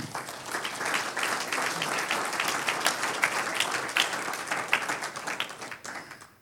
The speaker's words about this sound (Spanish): Un aplauso al Señor.